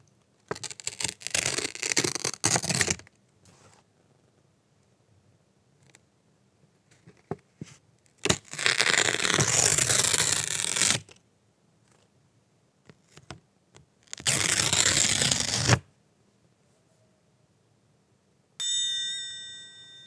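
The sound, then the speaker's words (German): Paper is torn in three separate, fairly loud rips a few seconds apart, each a rough ripping burst lasting a couple of seconds, followed near the end by a brief electronic tone. “Jetzt habe ich Papier zerrissen.”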